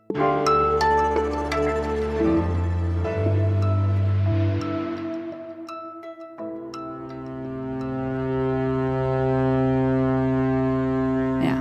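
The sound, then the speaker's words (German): The horn of the grain freighter Razzoni sounds two long, deep blasts, loud and droning with a rich buzzy tone, separated by a brief pause, as it leaves Odessa harbour, the first grain ship to do so in months; no one speaks. “So klang es, als gestern erstmals seit Monaten ein Getreideschiff den Hafen von Odessa verlassen hat.”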